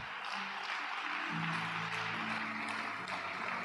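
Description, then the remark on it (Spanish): An audience at a religious service applauds for God after a Spanish-language sermon, in a steady, dense wash of clapping that fills the whole stretch, with low sustained tones humming faintly beneath it. “Dale el aplauso a él si se lo quieres dar.”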